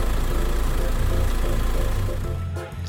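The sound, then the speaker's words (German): A car engine idles steadily with a low, rumbling drone, fairly loud, then falters and cuts out near the end as the ignition key is taken out of the lock. “Und erst wenn die Zündschlüssel aus dem Schloss ist, steht er. Also, das Auto, ne?”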